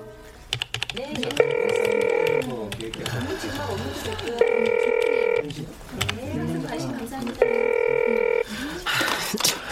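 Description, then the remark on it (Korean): A telephone rings three times, each ring lasting about a second and spaced evenly apart, going unanswered while voices talk in the gaps between rings. “전화도 안 받는데 거기 있겠어요?”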